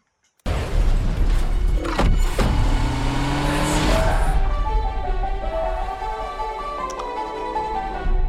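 A car engine bursts to life with a heavy thump and roars loudly, its pitch climbing and dipping as it revs hard, then settling into a sustained growl. No voices.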